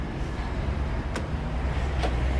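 Steady low rumble of city traffic and idling engines at Bavarski dvor, one of the main bus stops in Ljubljana, Slovenia, where bus number 6 is stopping, broken by two brief hissing bursts like air brakes, with no voices standing out.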